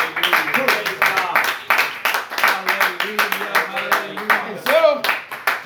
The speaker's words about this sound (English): Woo, let's clap our hands to the wonderful.